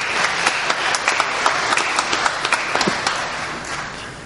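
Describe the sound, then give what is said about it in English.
An audience applauds people coming up to share their experience, many hands clapping in a dense, fairly loud patter that holds for several seconds before tapering off slightly at the end. “Guys, if you come up at this point, give them a round of applause and thank them for coming to.”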